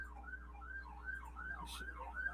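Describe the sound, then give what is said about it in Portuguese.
An ambulance siren wails in quick, repeating rises and falls, heard faintly over a steady low hum, with no one talking. “tá dizendo que não, que é, que é, que é ambulância.”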